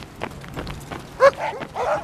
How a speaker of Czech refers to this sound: I když, jak se to vezme, hned v prvním parku mě začínají prohánět toulaví psy.